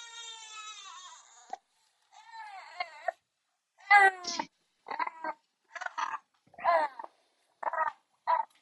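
A baby cries alone, starting with one long wavering wail and then breaking into a string of shorter, strained bursts with rising and falling pitch, separated by brief pauses.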